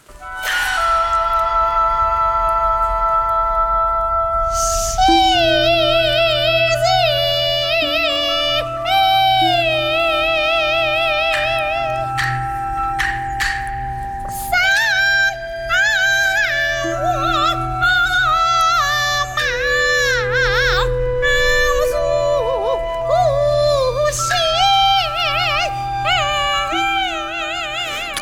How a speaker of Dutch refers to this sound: Ja, dit is eh, de, beroemdste zangeres uit die regio hè, die, dat, eh, eh, die dit zingt.